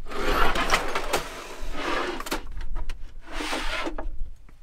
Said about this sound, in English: These two sections are on drawer slides while this third just pops out.